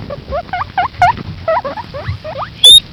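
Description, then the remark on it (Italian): A piglet squeals in a rapid series of short, rising squeaks, about a dozen in quick succession, ending with one sharp, piercing squeal. Fairly loud, with no voices. “ah no ma è, è vero è un porcellino sì, allora.”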